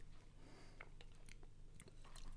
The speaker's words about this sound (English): Sip break.